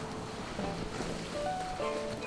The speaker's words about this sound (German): Starke Sturmböen spülen das Meer gegen die steile Felsküste.